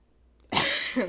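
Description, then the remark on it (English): After a brief quiet moment, a sudden, harsh cough bursts out, loud and breathy, with a short second push at the end. No one is talking. “I had to cough so bad and I kept trying to swallow my cough and I couldn't do it.”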